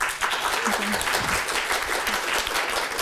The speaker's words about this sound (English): Okay, thank you, thank you so much for your thoughts. And and please join me in giving my three panelists an applause.